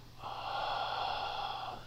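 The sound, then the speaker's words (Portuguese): A single long, deep inhalation through the nose, a steady airy hiss lasting nearly two seconds, fairly soft, with no talking. “É, correto é isso, é você falar, inspirar”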